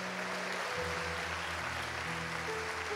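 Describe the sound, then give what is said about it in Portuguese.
An audience claps steadily to applaud the Lord, a dense wash of applause filling the moment, with low sustained organ-like tones humming underneath and no voices speaking. “Quantos podem aplaudir o Senhor e dizer glória a Deus?”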